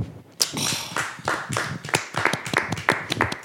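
A small group of people applauding, with sharp, uneven claps piling up at close range for a few seconds after a brief quiet start, no voices over them.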